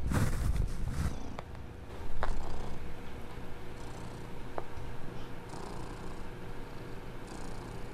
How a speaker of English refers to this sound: Okay, let's listen to his purrs one more time. Come on, purr a little louder.